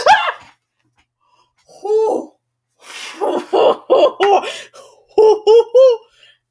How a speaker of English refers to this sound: So um the reason I screamed just now was because like my sister gave me this setting powder that she doesn't use anymore because she got a better one, and I was fiddling with it and I almost dropped out.